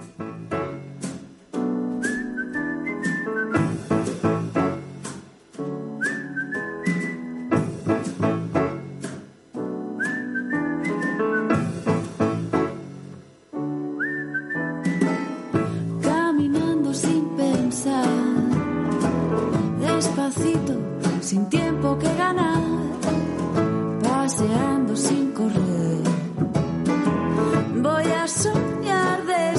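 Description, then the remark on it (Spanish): Music plays steadily, opening with a whistled melody over a light, start-stop accompaniment before fuller, denser instrumentation takes over for the rest. No one speaks. “Seguimos el tour con un poco más de música.”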